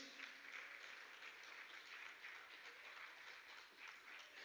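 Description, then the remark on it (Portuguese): A church audience applauds the Lord Jesus together, a steady dense wash of clapping that holds at an even level for several seconds without any speech over it. “Você pode aplaudir ao Senhor Jesus.”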